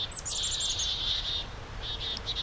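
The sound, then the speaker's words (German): A North American chickadee's alarm call warning of a pygmy owl: a quick burst of thin, high chirps followed by rapid buzzy repeated notes, clear over a low background rumble, with no voices. “Okay, also das ist die US-Meise und die warnt jetzt vor, vor dem wem? Sperlingskau.”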